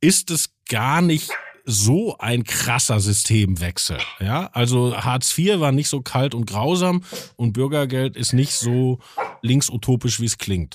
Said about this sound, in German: wenn Sie einen Hund im Hintergrund bellen hören, das ist Gustav der Mops